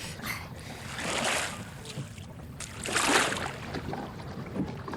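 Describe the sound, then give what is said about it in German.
Paddle strokes swish and splash through water in a slow rhythm as three detectives paddle a small boat to a landing spot between two rocks on an island, two broad surges of churned water, with a steady wash of lapping underneath and no voices. “Die drei Detektive paddelten ein Stück weiter, bis sie eine geeignete Stelle zwischen zwei Felsen fanden und verließen das Boot.”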